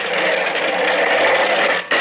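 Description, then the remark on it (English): A long steam-hauled freight train pulling out of the KC freight yards, heard as a loud, steady mechanical rumble and clatter that holds constant, with one brief dip just before the end. No voices. “The old boiler up front's got the steam up. And we're off.”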